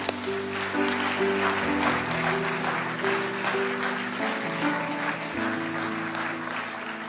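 Steady audience applause fills the whole stretch, a dense continuous crackle of many hands, with sustained keyboard-like chords playing underneath and shifting a few times.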